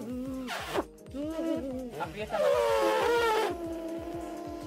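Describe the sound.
A buzzing lip vibration of a trumpet player's embouchure buzz, attempted on an F sharp, sliding and wavering in pitch in a few bursts over a steady low rumble, with a voice joining briefly.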